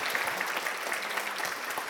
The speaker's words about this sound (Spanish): Pues muchas gracias. Un aplauso.